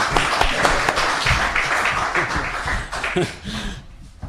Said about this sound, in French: Applaudissez pour Monsieur